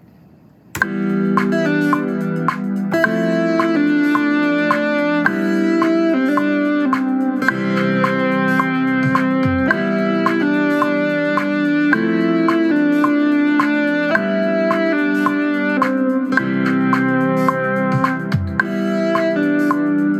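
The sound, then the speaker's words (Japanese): A bright synthesizer lead tone, a lead voice played on a synthesizer, plays a sustained melody of held notes with rich harmonics, loud, changing pitch every few seconds with no talking. “シンセサイザーシンセサイザーからえっ、とリード音色の中のこの音ですねこの音ですね、はい、ちょっとこれで出してみたいと思いますね。”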